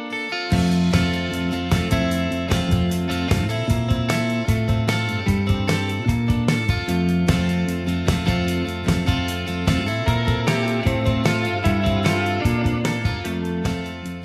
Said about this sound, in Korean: 음악은 매우 어, 예. 어, 평화롭고 감미로운 음악을 선보입니다.